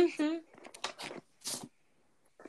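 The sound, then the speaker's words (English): Paper being cut from the cover of a card to make a collage: a short vocal sound at the start, then three or four crisp, papery bursts of snipping and rustling, with a quiet pause and a soft final rustle. “Like I'm cutting like you know the cover and like making it a collage.”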